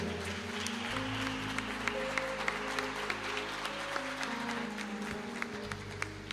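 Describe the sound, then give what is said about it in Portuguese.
An audience claps steadily for several seconds in praise of the name of the Lord Jesus, a dense crackle of many hands, while sustained keyboard chords hum underneath and shift pitch partway through. “Aplauda o nome do Senhor Jesus, aleluia.”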